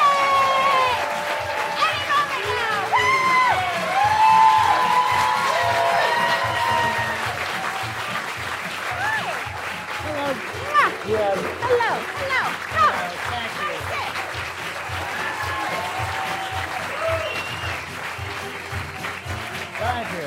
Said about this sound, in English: Everyone, let's give a round of applause